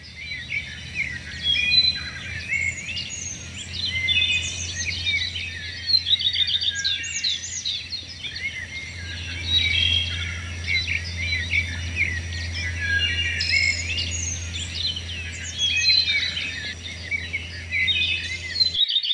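Dense birdsong fills a forest soundscape, without music, many chirps and trills overlapping continuously, with a steady low hum of wind or ambience beneath and a faint insect-like buzz throughout.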